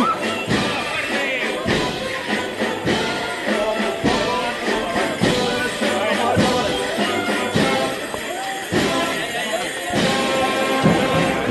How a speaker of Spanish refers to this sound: Estamos cerquita de la delantera. Y ahora golpe de tambor. Sigue avanzando.